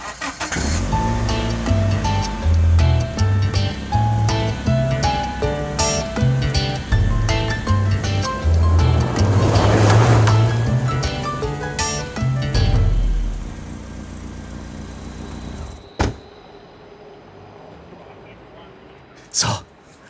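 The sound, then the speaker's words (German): A car engine runs steadily with a low hum that shifts in pitch as it pulls away, overlaid by voices and busy background sound, then drops off sharply near the end with a couple of clunks. “alle nochmal Pipi und dann fahren wir los.”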